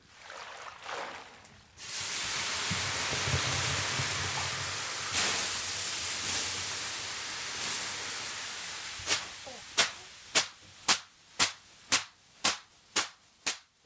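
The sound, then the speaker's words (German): In a wood-heated Finnish sauna, a loud, steady hiss of steam from water poured on the stove rushes for several seconds, then gives way to about a dozen sharp, evenly paced slaps of a bundle of birch twigs, crisp, with no one talking. “Das klingt interessant, das Zischen, Aufguss, klar.”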